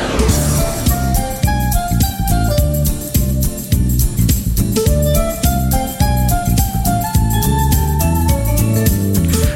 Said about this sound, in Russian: Вы слышите, дамы и господа, знакомые позывные? Да, да, да.